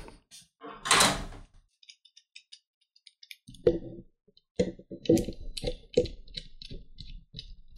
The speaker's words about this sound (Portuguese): Caraca, ele pegou o barulho da porta abrindo lá embaixo, velho, no, no bloco.